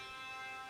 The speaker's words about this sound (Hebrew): לא השתקתי אותך, מה זה הטלפון הזה?